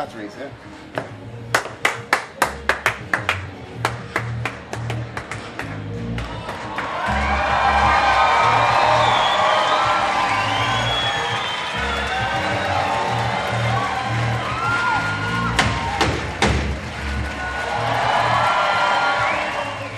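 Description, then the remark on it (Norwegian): A concert crowd of about 1500 people in the hall at Sentrum Scene claps in scattered, rhythmic bursts, then swells into sustained cheering and whooping, with a fresh wave of sharp clapping near the end and a low hum beneath. “1500 mann står og venter i salen på Sentrum Scene.”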